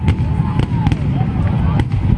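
Several fireworks crackle and pop in a steady barrage, with faint whistling streaks rising between the sharp bursts over a dense, rumbling background.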